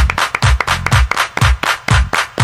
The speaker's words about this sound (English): Everybody clap your hands.